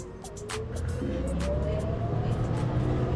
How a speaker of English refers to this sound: Now we're on the bus again, headed back to Silver Lake.